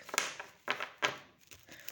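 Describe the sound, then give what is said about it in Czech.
A deck of playing cards being gathered up: a handful of crisp, papery swishes and light slaps, three louder ones followed by softer shuffling rustles, with no voices. “Já si pozbírám karty.”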